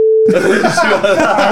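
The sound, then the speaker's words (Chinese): A short, steady mid-pitched censor bleep sounds loudly for a fraction of a second, then cuts straight into people talking over each other with some laughter. “这个地方会听到哔哔哔啊”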